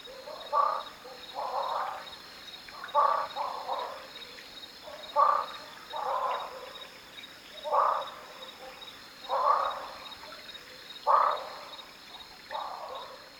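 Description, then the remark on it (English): A chorus of frogs calls at night under a near-full moon in a clear sky, in repeated resonant bursts, roughly one every second or two, steady and moderately loud, amplified by the cavities they dwell in, over a faint continuous high insect drone. “we spend several hours looking for a great spot to record and finally hone in on a really nice chorus. My oh my, do I love these frogs!”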